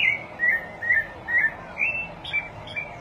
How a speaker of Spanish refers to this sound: Eh, eso es, vamos a hablar del jiguirro Eso es un yigüirro. Por si nunca han escuchado un jiguirro